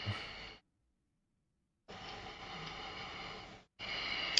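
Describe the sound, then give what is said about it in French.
A man's heavy, loud panting breaths as he concentrates on an AU4G alloy bar: three rough, airy bursts of breathing separated by short silences, the middle one long and drawn out, with no talking. “il est haletant.”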